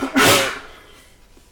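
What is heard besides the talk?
sneeze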